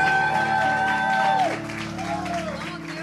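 An audience applauds with dense, steady clapping and a murmur of crowd noise, while sustained tones and a sliding whistle-like pitch ring over the top.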